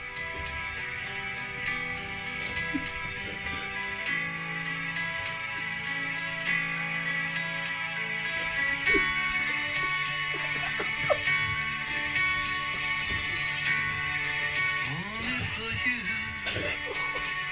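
A pop song entered for Eurovision 2024 plays steadily, with dense sustained harmonies, a pulsing beat and a melodic vocal line that slides and bends near the end, loud and full throughout with no talking.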